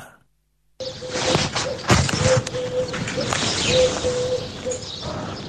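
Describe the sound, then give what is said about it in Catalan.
Small songbirds chirp and trill in quick, overlapping bursts against a dense, noisy outdoor background, starting after a brief moment of silence and continuing steadily throughout. “Doncs clàssic del cap de setmana, aquests ocellets cantaires”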